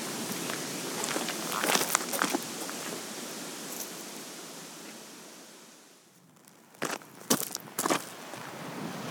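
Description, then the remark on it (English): Crunching footsteps on a gravelly path crossing Glenridding above the weir and heading up the valley towards Red Tarn: several uneven steps early on, then a brief pause before a few sharper crunches, all over a steady rushing background hiss. “We'll cross Glenridding back above the weir, cross the bridge, and head up the valley towards Red Tarn, ultimately.”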